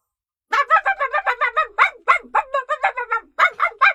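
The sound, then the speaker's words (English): A dog named Rover, next to a bus, barks rapidly and repeatedly in a long, insistent string of sharp, high-pitched yaps, with only a brief pause partway through, loud and with no talking over it. “罗弗一个劲儿的叫，Rover barked and barked。”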